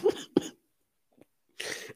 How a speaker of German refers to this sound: Alter, dieses Husten.